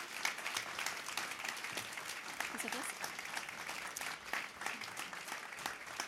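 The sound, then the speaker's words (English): An audience at the Nobel Peace Center claps steadily for about six seconds for three panelists who discussed possible options, a dense, even wash of many hands with no pauses, moderately loud. “I'd like you to all give a big applause for the three sitting here discussing possible options.”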